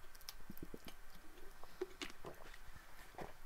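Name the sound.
sipping water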